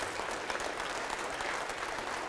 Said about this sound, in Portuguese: Glória a Deus, vamos aplaudir ao nome do Senhor.